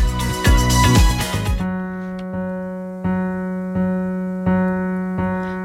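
An instrumental intro of a poem set to music opens with a dense, bright burst of notes, then settles into steady sustained tones re-struck in a slow, even pulse, with no singing yet.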